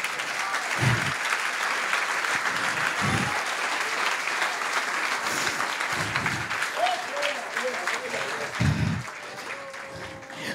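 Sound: audience applauding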